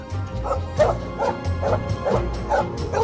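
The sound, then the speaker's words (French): A dog barks and yips in a quick, steady series of about seven sharp barks, with a low rumbling hum underneath throughout. The dog, Doll, has just jumped out of a car at a country chalet at the edge of the Mexican desert to sniff her hunting ground. “Il laissa Doll, sa chienne, sauter de voiture et renifler son terrain de chasse.”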